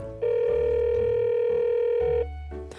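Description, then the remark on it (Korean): A phone call's ringback tone on a call to a neighbourhood supermarket about a part-time job: one steady electronic tone of about two seconds, clear, then silence while the call waits to connect, over a faint low background hum. “거리도 가깝고 일도 어렵지 않을 것 같아서 전화를 해봤죠.”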